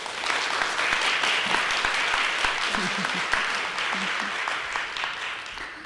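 A conference audience applauds the speakers after a presentation, steadily for several seconds, a dense wash of overlapping handclaps at an even, sustained loudness with no voices standing out.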